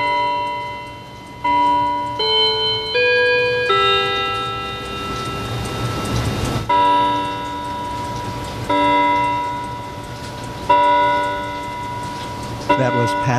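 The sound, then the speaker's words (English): A clock chimes a slow melody of ringing bell-like notes, each struck clearly and left to sustain and overlap, with a quieter low hum running underneath throughout. “pay attention to your clock”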